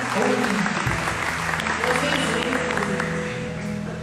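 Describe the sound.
Steady applause from a group fills the whole stretch, a dense wash of clapping with a murmur of voices mixed underneath; the applause is for the people from the Bom Repouso neighbourhood.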